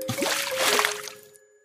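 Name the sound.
water splashing and trickling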